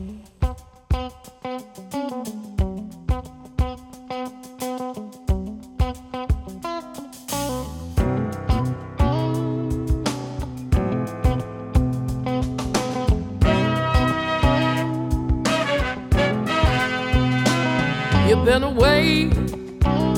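A recorded song plays at full volume: a sparse, plucked intro with steady rhythmic notes builds after a few seconds into a dense, driving band arrangement with heavy bass and bright harmonic layers.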